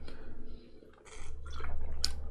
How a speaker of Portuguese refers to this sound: Deixa eu tomar mais um golinho de água.